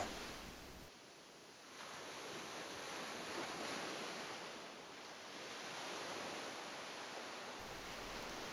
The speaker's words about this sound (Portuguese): Nós estamos a olhar do alto para uma costa rochosa, como se estivéssemos num precipício. Não há muita definição. A imagem divide-se em dois círculos luminosos intermitentes. As ondas, a avançar sem piedade contra as rochas negras, estão desfocadas.